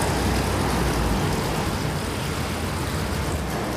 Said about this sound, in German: Jetzt habe ich die Stimmen gehört von der Straße aus, von dort hinten. Das Quietschen von der Bremse. So Gas geben von den Autos, das tiefe Gas geben von den Autos. Viel Verkehrsgeräusch.